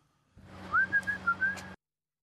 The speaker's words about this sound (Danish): Og fløjter han igen.